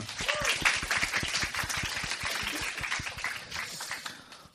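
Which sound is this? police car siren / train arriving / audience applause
audience applause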